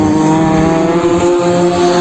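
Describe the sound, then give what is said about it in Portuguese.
Race car engines roar steadily during practice sessions at a racetrack, a loud, sustained droning whine with strong harmonic tones that hold throughout, uninterrupted, with no voices. “porque são muitos carros, são muitas categorias e o evento começa a partir de hoje, com os treinos que estão acontecendo aqui no autódromo.”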